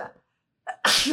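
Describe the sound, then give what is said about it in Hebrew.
A single sharp sneeze bursts out loudly, preceded by a brief quick intake of breath after a moment of silence. “לבריאות שוב. תודה, סליחה.”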